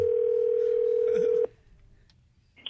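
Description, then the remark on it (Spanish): A steady, unbroken dial tone hums for about a second and a half, then cuts off abruptly as the call connects, leaving a quiet line with faint clicks and low background noise. “Ándale, que le llamó y le puso, carnalito, una...”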